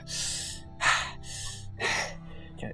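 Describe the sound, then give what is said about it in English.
A voice imitates heavy, exhausted panting: a steady run of about five rough, breathy huffs alternating in and out, moderately loud, with no words spoken. “He's kind of like exhausted, kind of like just panting.”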